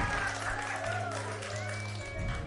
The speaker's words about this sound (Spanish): A ver, tú dijiste que sí, ven, ven, ven para acá. Sí, aplauso para que se anime, a ver, por favor, Por favor.